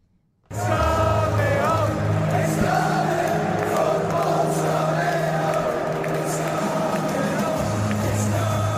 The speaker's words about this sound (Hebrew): טוב, היינו חייבים להחליף אווירה, זאת האווירה בלונדון, It's coming home, אנגליה עולה לגמר מול איטליה אתמול אה, בחגיגה, לא רק בוומבלי, אלא בכלל ברחובות אנגליה